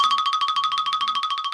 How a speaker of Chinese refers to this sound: 他正要继续发飙，突然听到电话铃响了。